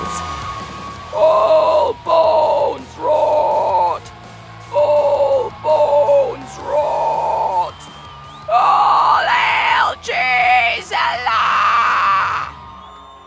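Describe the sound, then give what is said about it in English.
A string of loud, distorted, low-pitched metallic growls played through speakers on tiny bat drones buzzing a crowd: about nine bursts of roughly a second each in a steady rhythm, with a faint crowd-like murmur underneath and the last few growls rougher and more strained. “They used them now to buzz the crowd with hilariously low pitched metal growls.”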